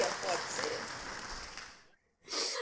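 A small group claps steadily nearby, a dense, fairly loud patter that dies away, falls silent for a moment, then bursts up again.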